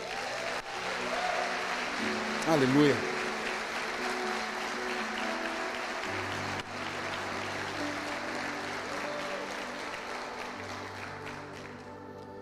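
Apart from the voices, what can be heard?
audience applauding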